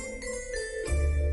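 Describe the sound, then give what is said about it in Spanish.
A shooting-star chime effect: shimmering, sparkling high tones glide briefly, then a deep low hum swells in underneath at the end. No voices. “Esa era una estrella fugaz.”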